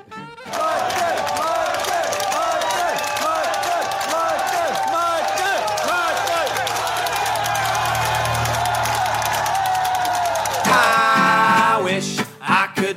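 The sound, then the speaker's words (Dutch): Steady café crowd murmur with many overlapping voices and festive chatter, continuous, on the third floor of a café in Breda, rising near the end into a brief louder burst of lively voices before cutting off. “U hoort wat gemompel en feestgedruis op de achtergrond”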